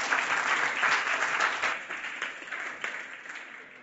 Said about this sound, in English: So I want to really cheer here as well. I want to feel that freedom to cheer. Let's do it. Yay! Let's give it up for our light groups.